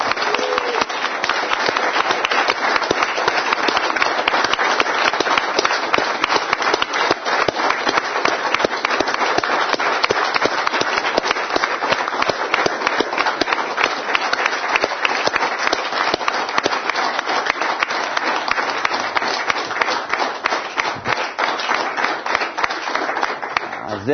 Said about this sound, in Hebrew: אפילו כאן באולפן שלנו, תומכת בקבוצת אשדוד, קבוצת קייב הצעירה, אולי אפילו המצלמות יכולות לתפוס אותם, הם יושבים שם בשורה השנייה והשלישית, ניתן להם איזה מחיאות כפיים